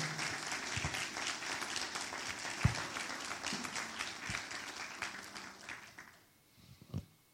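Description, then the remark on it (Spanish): During a Spanish-language sermon, a crowd breaks into loud, sustained applause for the blood of Jesus Christ. Dense overlapping claps fill the air for about six seconds before tapering off into a few scattered final claps. “Alguien le puede dar un aplauso fuerte a la sangre de Jesucristo.”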